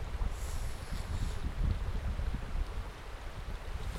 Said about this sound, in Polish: Zobacz jaki tam wodospad. Widzisz po prawej? No. Jak szumi? Tam daleko, o tam, no tam, tam.